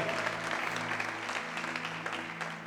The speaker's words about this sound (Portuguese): Nós te adoramos, aplaudindo o Teu nome, porque Tu és santo, porque Tu és digno. Vem neste lugar, meu Deus. Aplauda o Senhor, aplauda o Senhor, adore. Oh, aleluia.